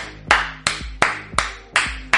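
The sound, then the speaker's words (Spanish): Clapping as applause for Cayoleanda, in a slow, steady rhythm, with five loud, sharp claps evenly spaced about a third of a second apart, each ringing briefly before the next. No voices. “Todo el mundo un aplauso para Cayoleanda, que es B.”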